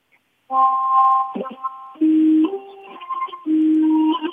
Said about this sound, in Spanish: Oye, arrima un poco el teléfono a la zanfona. Arrima la zanfona, mira, la zanfona para que suene bien.